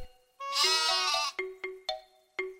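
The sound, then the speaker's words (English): A sheep lets out one long, quavering bleat, then four short, clipped bleats in quick succession, clear with no talking. “said the sheep.”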